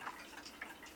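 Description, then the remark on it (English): Faint, soft ticks of an old clock, a few light clicks spaced unevenly across a second, quiet with no voices. “It reminds me the the clock, the old clock that was in my grandmother's house.”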